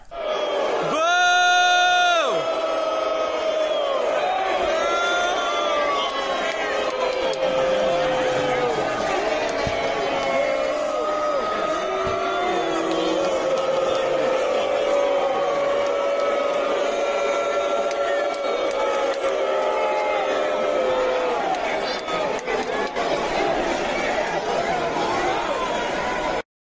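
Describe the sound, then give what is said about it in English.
A large crowd roars continuously at a live event, the first show in a new building, captured in a cell phone video, with cheering, shouting and excited screams blending into a loud, dense wall of noise that barely lets up. “A lot of people took cell phone videos to show what the crowd uh, was feeling, but I just I just grabbed one again, courtesy of the DVD Freak on YouTube.”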